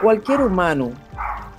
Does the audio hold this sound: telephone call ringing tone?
no